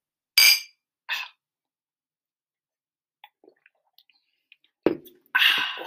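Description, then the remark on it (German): Two bright glass clinks ring out in quick succession as a toast is made before tasting a drink called Dirty, followed by a quiet stretch of faint small taps, a soft thud and a brief hissing rush at the end. “Und jetzt haben wir, ja, jetzt haben wir uns mal wieder getroffen und jetzt wird Dirty probiert. Prost!”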